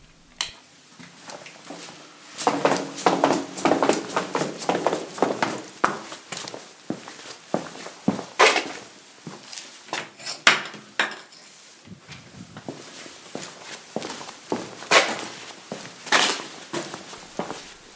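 Footsteps in ordinary sneakers scuff and crunch over a cellar floor with leftover grains of sand, on the way to a bicycle: an uneven series of soft thuds with a sandpapery rasp, some steps louder than others, with no voices.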